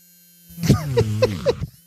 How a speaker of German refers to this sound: Durch die hohe Rotations, nicht so feste, durch die hohe Rotationsgeschwindigkeit des Radiergummis brauchst du weniger Druck und minimierst damit den Schaden am Papier.